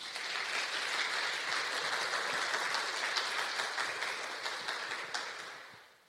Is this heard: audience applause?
yes